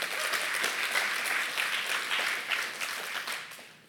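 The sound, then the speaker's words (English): A church audience claps for about 15 people who are soon to be baptized, a steady, dense wash of many hands at an even level, tapering off slightly toward the end with no voices standing out. “Come on, y'all can clap for that.”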